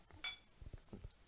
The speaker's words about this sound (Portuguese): estás a tentar abrir uma cerveja com, com um martelo.